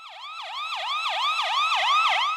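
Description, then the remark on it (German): A police siren wails in a fast, repeating yelp, each rise and fall lasting about a third of a second, loud, slowly swelling with no voices over it. “Achtung, Achtung, hier spricht die Soundpolizei.”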